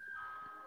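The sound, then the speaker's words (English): A brief snatch of an ice cream van chime from outside, a thin steady tone held for under a second, heard faintly with no one speaking. “I don't know if you can hear an ice cream van outside here.”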